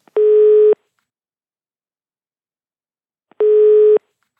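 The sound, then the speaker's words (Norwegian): A phone ringback tone on a call back to a yoga instructor sounds twice, each steady electronic burst lasting about half a second with a long silent gap between them, clear with no voices. “Passer det at jeg ringer, eller?”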